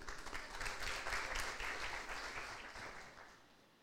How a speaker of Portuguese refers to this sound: Uma salva de palmas de segurança aqui, irmão.